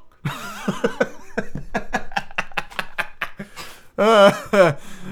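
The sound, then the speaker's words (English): A voice imitates an angry goose: a stream of rapid, strained honking and hissing bursts, then two louder, drawn-out honks near the end, fairly loud. “that's what angry gooses sound like.”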